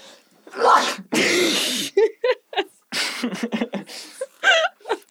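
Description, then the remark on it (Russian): A rising breathy build-up ends in one loud sneeze, then brief laughing and chattering voices. “На самом деле думала, что я буду чихать”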